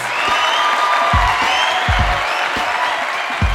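An audience applauds as a guest is introduced live on a show. It is a steady, dense wash of clapping that holds at an even, fairly loud level throughout, with a few low thumps mixed in and a faint murmur of crowd voices.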